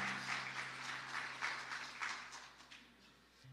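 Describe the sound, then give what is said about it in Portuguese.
An audience at a church conference claps together as they sit down, giving a round of applause to God, in a steady, dense wash of applause that swells and eases in soft waves, with a low electrical hum running underneath and no one speaking. “Se assente dando uma salva de palmas para esse Deus poderoso.”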